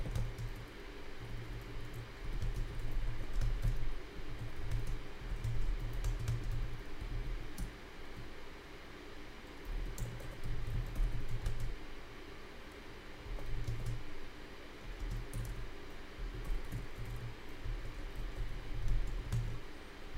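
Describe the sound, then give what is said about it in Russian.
Steady typing on a computer keyboard, a continuous patter of quick key clicks with small pauses over a low background hum, as someone writes a text chat message. “Э, сейчас я напишу, надо фаундера позвать, послушать, э, что он расскажет сейчас.”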